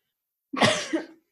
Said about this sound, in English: Um, I need a cough again.